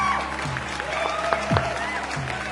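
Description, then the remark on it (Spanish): A background applause sound effect: steady, dense applause from a crowd, a continuous wash of many hands clapping at an even loudness, with some faint voices and cheers mixed underneath. “Así que Ahora Nico va a poner unos aplausos de fondo y arrancamos con la primera entrevista.”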